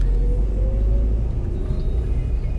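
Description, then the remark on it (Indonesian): A steady, low engine rumble fills the cabin of a moving car, driven by one person alone on a Saturday afternoon, 9 November 2019, on the way to pick someone up, with a constant droning hum and faint road noise and no other sounds standing out. “Hari ini tanggal 9 November 2019 Biasa nih Sabtu sore Mau keluar Di dalam mobil Sendirian dulu nih sambil jemput”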